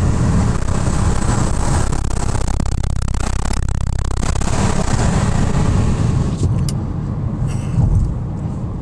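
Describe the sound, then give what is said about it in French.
Loud, steady roar of wind buffeting through a car window the driver has just opened while driving at 93 on the highway, with a low rumbling road drone underneath that eases slightly near the end. “Je ouvrir ma fenêtre, voir. Écoutez bien ça. Ah, là, il y a trop de vent.”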